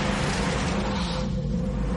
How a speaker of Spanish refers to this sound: Mike acelera y se va con el coche.